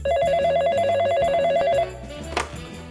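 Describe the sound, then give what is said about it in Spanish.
A telephone rings at Scotland Yard headquarters in London with a rapid, warbling electronic trill in one sustained burst of nearly two seconds, loud over low background music, then cuts off. “Es entonces cuando un teléfono suena en la sede londinense de Scotland Yard, la legendaria policía británica.”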